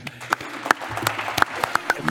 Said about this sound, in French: Applaudissements pour